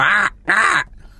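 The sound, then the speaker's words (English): Two loud, harsh caws from a crow outside a window, each about a third of a second long with a short pause between, with no voices present. “Well, I can hear a crow outside your uh, window.”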